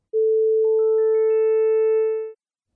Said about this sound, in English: Now, we can create sounds of just one frequency with computers. Here's what that sounds like. I personally find it kind of unpleasant